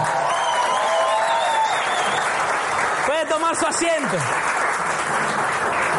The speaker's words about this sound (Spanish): Alguien que aplauda.